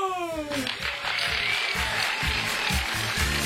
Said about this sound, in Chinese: 感谢各位亲们热情的掌声啊！